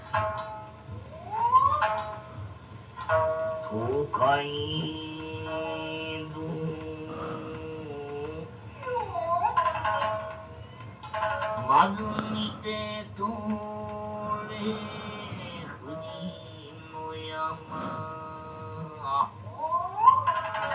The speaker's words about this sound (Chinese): 浪曲是什么？冲浪的浪，曲子的曲，一种呢，一个人的说唱。嗯，他其实是在讲故事，然后他是用刚刚有听到嘛，就是他用三味线来伴奏。